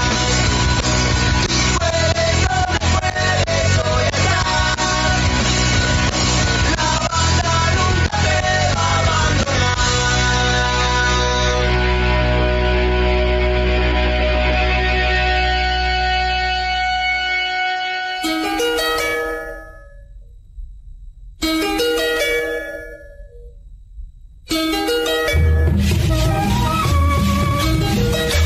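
A loud, dense rock band recording plays with heavy bass and driving drums, then breaks into sharp stop-start hits with brief silences before the full band crashes back in.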